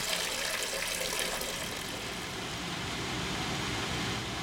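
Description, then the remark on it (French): A tap in Nantes, France, runs steadily with drinking water drawn from the Loire river. The water pours in a continuous, even hiss for several seconds with no pauses and no voices, moderately loud. “entre le fleuve et le robinet, l'eau passe par Valérie David”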